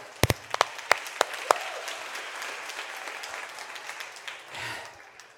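A scattering of loud, sharp hand claps opens into steady audience applause, a dense crackle of many hands that gradually thins and fades out.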